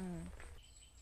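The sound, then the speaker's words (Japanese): Faint, high-pitched bird chirps, lively and unfamiliar, carry along a forest path in a park in Japan full of deciduous broadleaf trees, following the brief tail end of a voice at the start. “鳥も鳴いてますね賑やかですね鳥がすごいちょっと聞いたことのない鳥の鳴き声がします”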